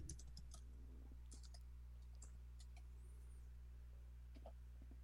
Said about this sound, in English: Get to hear my fast type.